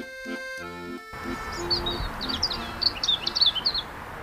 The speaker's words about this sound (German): Wir sind hier in der Tagespflege Landleben im Garten und das Geräusch, äh, das Sie gehört haben, war äh, Vogelgezwitscher, mit dem wir morgens immer begrüßt werden